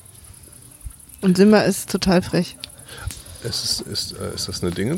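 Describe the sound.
A faint, steady high-pitched chirring of crickets in a garden runs through the whole recording, sitting beneath people talking in a relaxed outdoor setting.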